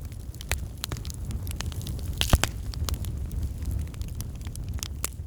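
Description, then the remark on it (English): A steady fire crackles, with irregular sharp pops and snaps scattered over a low, continuous rumble of burning, one louder snap standing out midway. “Hearing the crackle of fire.”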